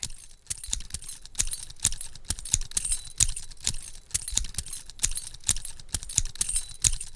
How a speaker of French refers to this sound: Au-dessus de ça, je vais ajouter maintenant le bruit d'une paire de ciseaux que j'ouvre et que je ferme, et vous aurez donc le bruit de frottement des lames et le claquement des deux poignets.